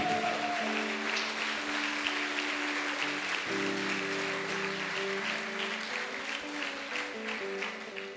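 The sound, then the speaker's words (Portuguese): An audience at a Bola de Neve church service applauds steadily for Jesus for several seconds, a dense wash of clapping that stays loud throughout while sustained keyboard chords play underneath. “Se é para Jesus, dá um forte aplauso a Ele.”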